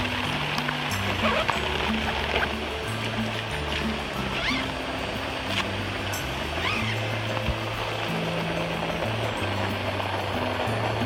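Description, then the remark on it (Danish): Water splashes and rushes steadily for the whole stretch, a dense, hissing wash, with low humming tones shifting faintly underneath and no clear talk. “Du kan se vandet her. Men, øh, men det er faktisk nedunder, det er ikke indeni.”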